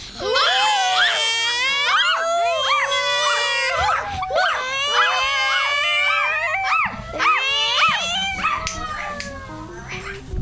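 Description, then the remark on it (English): A group of children in the Pana Radio video studio loudly imitate dogs and cats all at once for a team game, a chaotic chorus of overlapping barking woofs, howls and wavering meows that continues for about ten seconds. “Okay, so in 3 to 1, I want to hear woofs and meows.”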